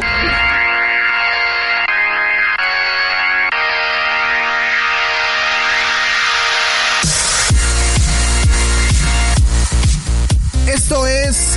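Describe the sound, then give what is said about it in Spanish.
A loud electronic dance track by a famous DJ, with heavily processed, distorted synth lines over sustained chords, shifting at about seven seconds into punchy rhythmic hits and a sweeping, warbling lead. “vamos a escuchar pequeños fragmentos de grandes canciones de artistas que pues sí conocemos, pero pues nomás la cara, la jeta, no se las conocemos.”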